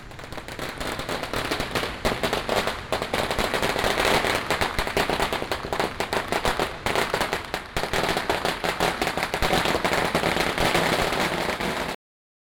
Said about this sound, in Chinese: 放鞭炮，小朋友，你们有玩过鞭炮吗？那个声音超大声，每次都要躲得好远，捂着耳朵。传说好像是这样子才可以吓跑不好的东西，然后迎接新的一年。